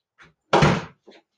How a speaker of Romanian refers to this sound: Stai că s-a deschis ușa acum.